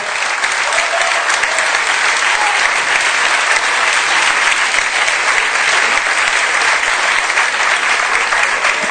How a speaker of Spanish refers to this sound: o sea, un aplauso para los organizadores de estos premios, ¿vale? Por favor, fuerte aplauso.